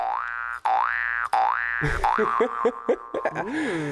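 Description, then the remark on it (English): A cartoonish boing sound effect, a comedic 'boner' sound, rings out three times in a steady rhythm, each a springy wobbling tone, followed by a quick jumble of bouncy comedic noises. Loud, with no talking. “I got a boner sound.”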